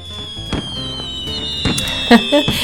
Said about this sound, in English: yep, listen to those fireworks.